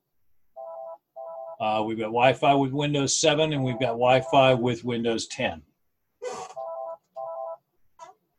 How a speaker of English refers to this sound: Um, sorry about the ringing phone in the background here. We are in the office today and there's going to be some phone noise.